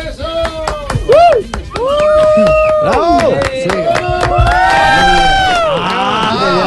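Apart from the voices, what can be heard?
audience applause and cheering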